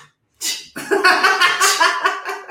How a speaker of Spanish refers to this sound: ¿Te fijas cómo mi, mi estornudo es discreto porque es imperial, ¿eh?